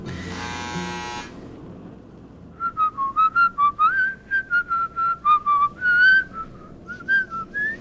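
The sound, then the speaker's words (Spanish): A short electric buzz, then a person whistles a lively tune, a quick run of about fifteen clear, rising and falling notes with brief gaps between them. “Caray, si abre la tía y me encuentra chiflando va a pensar que soy un descarado.”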